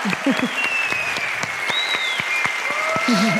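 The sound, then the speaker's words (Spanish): An audience applauds with steady, dense clapping that lasts the whole stretch, loud and even, with a few shouts and a whistle rising through the clapping. “Un aplauso.”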